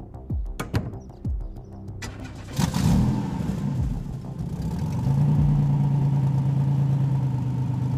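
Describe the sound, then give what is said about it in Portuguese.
A few sharp mechanical clicks and thuds, then a car engine turns over and settles into a steady, rising hum as it pulls away, moderately loud, with no voices; the car is being driven to a hotel. “Vocês andam de carro até o hotel em que supostamente estaria localizado”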